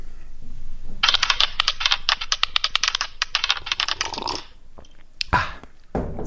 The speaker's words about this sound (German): Okay, dann würfeln mal.